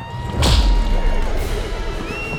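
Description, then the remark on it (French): A single deep cannon shot booms from a distance in San Francisco, starting a race, followed closely by a coach driver's whip; its low rumble trails off into a steady, noisy background hum. “L'instant d'après, un coup de canon résonne dans le lointain suivi de près par le fouet du conducteur.”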